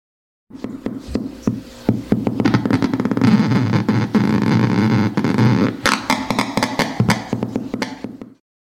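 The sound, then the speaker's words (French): Discharges of an electric eel in an aquarium, reacting to a caiman mask fitted with LEDs and electrodes, rendered through a speaker: a loud, harsh crackling buzz packed with rapid clicks and pulses, running steadily for about eight seconds with no voices. “Ça, c'était avec le masque de Caïman.”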